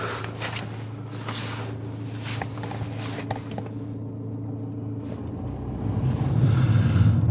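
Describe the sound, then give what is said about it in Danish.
Wind buffets a phone microphone outdoors while the speaker is out cycling, a steady rumbling roar with a few scattered clicks and a stronger gust swelling toward the end. No one speaks. “Han er ude at cykle, derfor han ikke tog. Så blæser vinden.”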